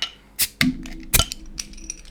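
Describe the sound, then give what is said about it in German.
A beer bottle being opened: a few sharp glassy clicks and knocks, then a short burst of bright hissing as the cap comes off, with no talking. “Ein schönes Zischen.”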